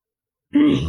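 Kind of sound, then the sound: human body sound, throat clearing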